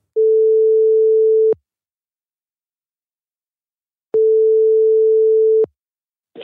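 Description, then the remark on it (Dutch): A telephone ringback tone as a radio show places a call to its two correspondents following the Tour in France: two long, steady mid-pitched buzzing tones, each about a second and a half, separated by a long silent pause, with no voices. “In de toeristische dienst bellen we onze twee toeristen”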